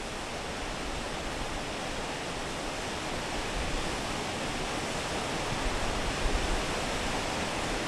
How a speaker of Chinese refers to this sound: 我们现在在位置是综合寺往凤眼洞走的这 个路途上， 哎，转弯。 好深的一条峡谷哈！ 对对对。 哇，能听到那个水声。